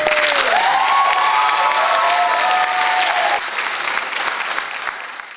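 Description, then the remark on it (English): A dense live studio audience at a talk radio show in Arizona claps and cheers loudly, with rising whoops cutting through. The applause drops noticeably partway through, then keeps going more softly and tapers toward the end. “Our motivated Monday live studio audience have their common sense caps on and enjoyed a weekend of self-care listening to episodes 196 and 197 again.”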